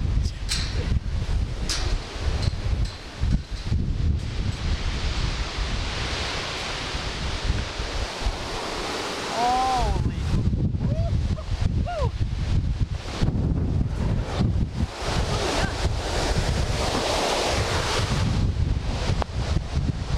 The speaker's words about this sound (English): But uh, the the winds really picked up, and it got really like, look over there, it's really dark.